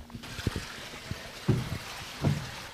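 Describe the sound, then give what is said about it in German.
Running water trickles and splashes steadily, like a small brook, from the Geiselbach stream flowing beneath a themed sleeping hut at a wilderness camp, with occasional low thumps and gurgles rising above the continuous watery hiss. “Da ist das Besondere, dass sie tatsächlich über diesen plätschernden Bach, über den Geiselbach drüber gebaut ist.”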